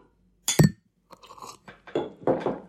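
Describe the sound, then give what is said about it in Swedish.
During a champagne toast, a champagne glass knocks against a microphone: one sharp, loud clink with a brief ringing tone and a dull thump, then a few softer scraping, crunchy bumps. No one speaks. “Jag, jag, jag klirrar den mot mikrofonen tänker jag.”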